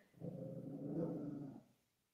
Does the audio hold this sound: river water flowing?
no